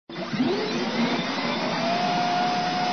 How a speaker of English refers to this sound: Just think if things had been a little bit different, we could all be driving around with that high pitched whine of a turbine under the hood.